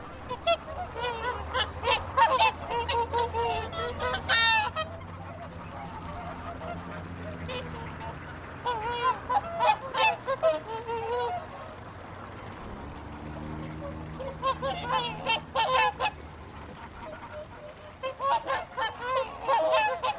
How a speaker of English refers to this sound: In the center of Iceland's capital, Reykjavik, there's a pond where each day young and old alike come to feed the geese, ducks, and assorted fowl that inhabit the waterway. Here's what it all sounds like on a typical morning.